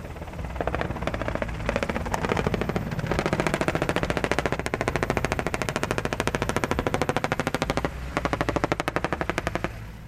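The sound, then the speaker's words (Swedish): Sustained bursts of rapid machine gun fire, loud, with dense rhythmic cracks over a low rotor-like rumble, continuing almost without pause for the whole stretch, fired from the air by a Black Hawk helicopter giving fire support during a Swedish Armed Forces ranger battalion combat demonstration. No one speaks. “De flygs först in med en Black Hawk-helikopter som eldunderstöder från luften.”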